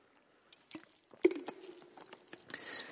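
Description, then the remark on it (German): Someone takes a quiet sip of water: soft clicks and handling noises, a light knock with a brief ring, then faint gulping. No one speaks. “nee, Moment, ich muss dafür erst einen Schluck Wasser trinken und dann lieber mit der Geschichte anfangen, um den Punkt rauszuarbeiten.”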